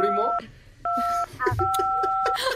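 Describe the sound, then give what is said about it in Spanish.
Three long, steady telephone keypad tones sound one after another with short gaps as a caller presses the phone's buttons during a call, fairly loud, while people talk over and between them. “deja de marcar el”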